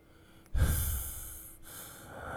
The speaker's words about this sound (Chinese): 快到一点时，老威特利醒了过来。一边呼哧呼哧的喘气，一边对他的外孙挤出了几句话